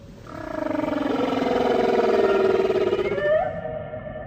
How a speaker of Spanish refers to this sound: canciones que las ballenas entonan unas para las otras o bien las cantan juntas.